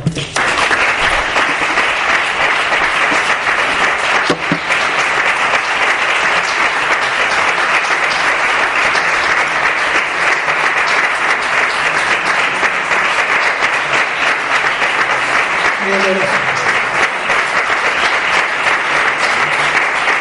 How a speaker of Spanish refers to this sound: A ustedes les corresponde ahora, para todos ellos, los citados, los aplauso. Muchas gracias.